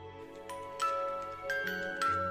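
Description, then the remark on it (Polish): A music box plays a slow melody, a handful of bright plinking notes ringing out one after another at a steady, moderate volume, with no voices. “Dźwięk pozytywki?”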